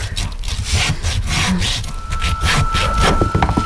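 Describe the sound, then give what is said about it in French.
A metal hacksaw rasps through pork bone in steady back-and-forth strokes, loud, with a faint metallic ring creeping in toward the end, cutting a rouelle, a piece of pork with the bone in the middle. No one speaks. “Et du coup, il faut scier l'os avec une scie à métro.”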